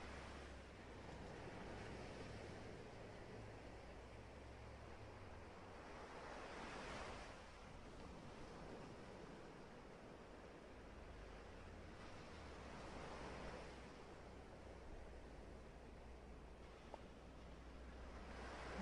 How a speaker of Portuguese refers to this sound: Neste momento, foque apenas em sua respiração e nas ondas que vêm e que vão.